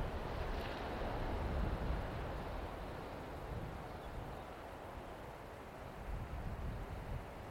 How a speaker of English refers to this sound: Welcome to this water meditation brought with the beautiful and natural sounds on a cliff top of Tasmania with the sound of the waves and the ocean